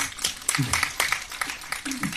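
A short burst of applause from a small audience: dense, overlapping claps for about two seconds, with faint voices murmuring underneath.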